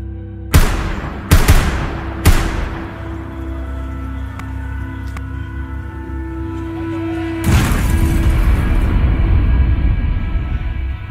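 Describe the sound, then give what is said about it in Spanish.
Three sharp gunshots crack out in quick succession as police officers fire from a distance at a terrorist inside the Bataclan, each shot trailing off with a reverberant echo, before a louder, sustained roaring rumble takes over and carries to the end. “Y en ese momento, cuando el terrorista se encontraba gritando desde el spot principal del lugar, dos agentes de policía lograron entrar a Bataclan y le dieron de baja desde la distancia.”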